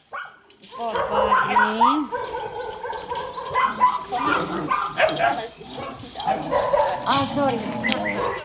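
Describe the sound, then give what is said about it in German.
Several dogs bark, yip and whimper at once in a continuous, fairly loud chorus at an animal shelter in the small town of Sitia, with high whines rising over the barking; voices murmur underneath. “führt uns herum und zeigt uns verschiedene Hunde, die wir schon von den Fotos und Videos kennen und die wir später vielleicht auch in ein gutes Zuhause vermitteln können.”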